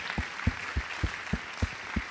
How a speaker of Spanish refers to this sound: Bueno, un aplausito, algo, haga algo, haga algo. Gracias, pastores.